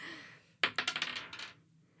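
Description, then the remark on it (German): Dice rattle and tumble across a hard surface in a quick burst of sharp clicks, bouncing several times before settling, fairly loud. “du darfst gerne auch würfeln”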